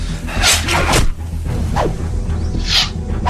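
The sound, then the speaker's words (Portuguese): Several arrows whoosh past one after another in quick, uneven succession, each a sharp swishing sweep over a steady low rumble, with no voices. “A gente consegue fugir da fazenda um, contra os bandidos de flechas infinitas, porque não importa quanto demora ficar passando flecha, flecha, flecha.”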